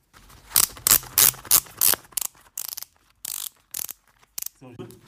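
A shoe's ratchet buckle is cranked tight as someone puts on their shoes, in a quick series of sharp, bright clicks, first in a fast cluster of about five, then a few spaced-out clicks, fairly loud.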